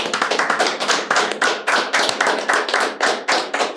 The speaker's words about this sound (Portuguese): O que, que a nossa convidada merece? Mas... Salva de palmas, né?